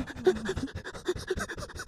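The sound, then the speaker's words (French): A voice imitates a terrified man hyperventilating: quick, rhythmic panting breaths, about five per second, moderately loud, with no other sounds around them. “Il est en mode hyperventilation, genre.”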